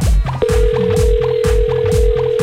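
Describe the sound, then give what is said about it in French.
A steady, unbroken telephone ringback tone, heard while calling a phone that goes unanswered, starts after a brief moment and holds at an even pitch, sitting over a rhythmic, beat-like backing sound with no talking. “Tu l'appelles là”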